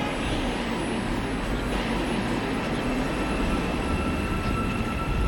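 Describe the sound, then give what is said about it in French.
A metro train at Taksim metro station rumbles steadily and loudly throughout, a dense low roar with a faint high-pitched whine riding on top, without voices. “Alors on arrive euh, à la station de métro Taksim et devant il y a la station de bus où euh, des dizaines de gens attendent.”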